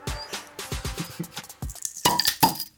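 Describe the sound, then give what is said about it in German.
Several glasses clink together in a toast in a quick, irregular cluster of sharp knocks, with a few brighter ringing chimes standing out near the end. “Prost”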